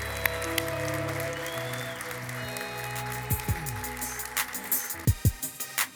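A church audience applauds for those who prayed the prayer to follow Jesus that morning, a steady, dense patter over sustained keyboard tones, with a few sharper, louder claps standing out toward the end.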